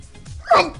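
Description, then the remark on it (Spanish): A single sharp sneeze bursts out, a quick voiced explosion that fades in a fraction of a second against a quiet background. “salud. salud. salud.”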